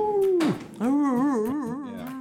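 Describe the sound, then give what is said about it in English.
A person mimics a hound's howl: a long, wavering, sustained vocal tone that dips briefly, then resumes with a warbling, quavering pitch, fairly loud, with no other sounds. “I feel like hounds can be a little intense, maybe. I feel like they're always going, oh.”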